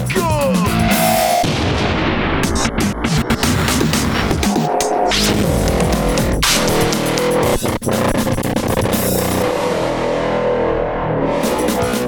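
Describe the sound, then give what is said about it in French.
Loud, distorted explosion sound effects pile up over a dense, heavily processed musical backdrop of a song, with repeated sharp booming bursts and echoing crashes filling the whole stretch without a pause. “répétez péter le whoop et les explosions.”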